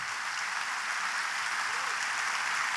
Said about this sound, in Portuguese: Queria que a igreja desse uma salva de palmas